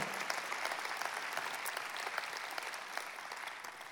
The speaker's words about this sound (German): Können wir also Gruppe großen Applaus geben.